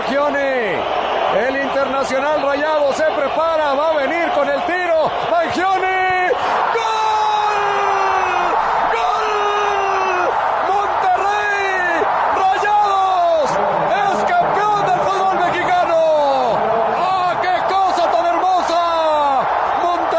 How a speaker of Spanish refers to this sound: Vamos a ver la responsabilidad para el Piri El Azteca chiflándole abajo